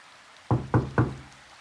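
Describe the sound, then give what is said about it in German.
Three sharp knocks in quick, even succession, solid like knuckles on a wooden front door of a house in rainy weather, followed by quiet. No one speaks. “Und gerade als sie den Kopf in den Vorratsschrank steckte, hörte sie ein Klopfen.”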